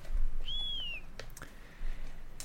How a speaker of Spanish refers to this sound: Pero bueno, que me he colado con el silbito de Hasbula.